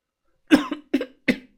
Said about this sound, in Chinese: 他又用力的咳嗽了一阵，才开口说道